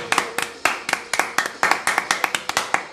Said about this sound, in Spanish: ¿Aplauso? Aplauso, sin lugar a dudas. Se lleva el aplauso.